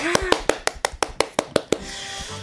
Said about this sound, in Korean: 박수 보내드립니다.